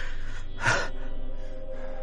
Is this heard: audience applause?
no